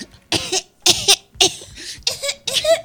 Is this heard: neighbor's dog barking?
no